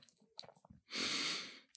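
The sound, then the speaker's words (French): A single deep, airy inhalation, breathing in as during meditation, lasting just under a second and fairly loud, preceded by faint mouth clicks and small breathy noises. “Donc, c'est-à-dire que quand tu inspires”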